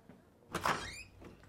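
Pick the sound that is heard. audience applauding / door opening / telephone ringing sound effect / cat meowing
door opening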